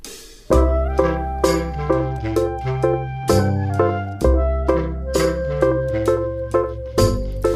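A cheerful children's song made for the Dutch Nationale Voorleesdagen, sung by a female singer, with a bright melody over steady, bouncy accompaniment and a clear regular beat, at moderate volume.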